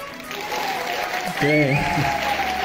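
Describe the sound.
A crowd of young people at a school claps steadily in a dense, continuous patter, with a few voices whooping and calling out partway through as the applause swells slightly.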